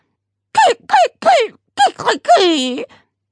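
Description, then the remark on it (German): A voice imitates a parrot squawking in protest before it snaps its beak shut: four short, shrill, nasal squawks in quick succession, then a longer drawn-out cry that sinks in pitch, loud. “protestierte der Papagei und klappte seinen Schnabel zu.”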